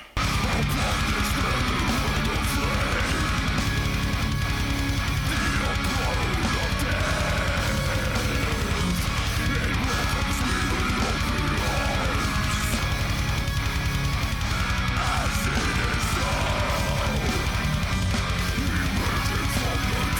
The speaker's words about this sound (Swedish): Som även tycker jag förstärker riffet. Eh, men alltså gitarrerna, de är så jävla snygga. Det är så jävla episkt.